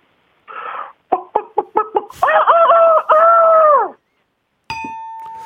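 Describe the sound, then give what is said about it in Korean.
A human voice imitates a rooster crowing as it warms up its throat in the morning, starting with a quick run of short clucks and building into a long, loud, wavering crow, followed after a pause by a single ringing bell ding, lightly struck by a judge. “일단은 이제 아침에 목을 풀다가 우는 수탉을 먼저 하겠습니다.”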